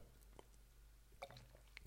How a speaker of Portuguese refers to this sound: Até estou a dar um golinho de uma cerveja fresca porque está calor.